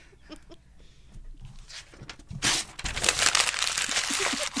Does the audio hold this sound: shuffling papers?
yes